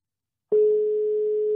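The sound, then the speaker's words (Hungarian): After a short silence, a steady, single-pitched ringing tone from an outgoing phone call to someone at the Puppet Theatre (Bábszínház) starts abruptly and holds clearly and evenly to the end, with no voices. “Na, nézzük, hogy kicsörög a telefon.”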